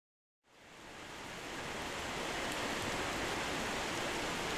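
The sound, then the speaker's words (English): Steady rain falling on a back porch, a dense, even hiss that swells in after a brief silence and holds constant throughout, with no voices. “With the sound of the rain on the back porch in the background.”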